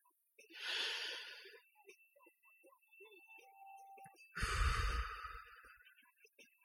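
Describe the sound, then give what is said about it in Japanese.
A person imitates the sound of someone smoking a cigarette as heard on broadcasts and podcasts: a long, airy inhale, a few soft mouth clicks during a pause, then a louder, breathy exhale that puffs against the mic. “なんか他のね、人の放送とか、ラジオとかね、ポッドキャストを聞いてて、特に外国のね、外国にいる人だとか、まあ、そういう人の放送だとかね、こう聞いてて、まあ、タバコを吸ってるんだと思うんですよ。なんかね、音が聞こえてくるんですよね。”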